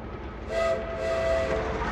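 A train rumbles steadily along the tracks, and a sustained whistle tone sounds over the noise for about a second before fading back into the clatter.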